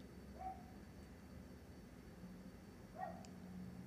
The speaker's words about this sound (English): not again not again the people with the dog that lived across the hall